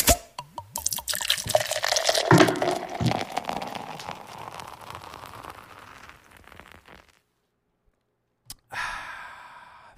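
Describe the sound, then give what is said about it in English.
A beverage pours in a steady splashing stream for several seconds and gradually tapers off. After a brief silence and a soft click, a short sip and breathy exhale follow. “that is a tasty beverage.”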